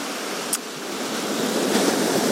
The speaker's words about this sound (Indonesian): coba dengarkan ombak yang semakin kadang deras kadang kecil kadang pasang kadang surut